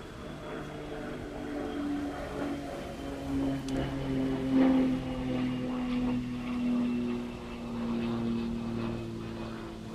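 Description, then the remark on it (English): A propeller airplane drones steadily overhead, a sustained low engine hum with slowly shifting pitch that swells slightly in the middle and stays fairly loud throughout, with no one speaking. “I'm going to disagree because oh, there's a plane.”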